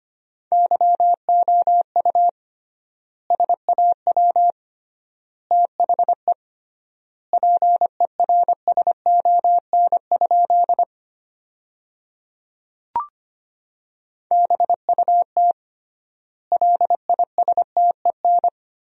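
A single steady beeping tone keys rapid Morse code at 25 words per minute, sending sentences built from the 400 most common words with triple word spacing, in clusters of dots and dashes, with longer pauses between word groups and one brief click partway through. No voices.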